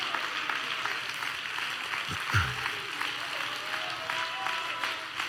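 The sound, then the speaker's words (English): An audience claps their hands to the Lord steadily, many hands making a dense, continuous crackle of applause that holds at an even level, with a brief thump partway through and a faint voice mixed in. “Come on, somebody clap your hands to the Lord for just.”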